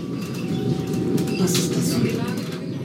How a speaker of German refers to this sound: Die Züge sind leise, modern und sollen auf den Taunusbahnen Triebwagen ersetzen, die bisher mit Diesel fahren und deshalb CO2 ausstoßen. Der Wasserstoffzug emittiert dagegen nur Wasserdampf und Kondenswasser.